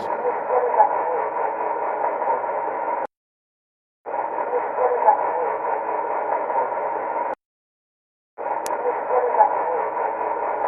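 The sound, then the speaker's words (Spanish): Muffled, narrow-band tape static from a psychophony recording plays in three steady stretches separated by brief silences. A faint voice-like murmur buried in the hiss is said to answer "Estoy aquí" (I am here). It sounds like an old low-quality recording. “El investigador cree que en esta cinta podemos oír como una de las voces le responde, Estoy aquí.”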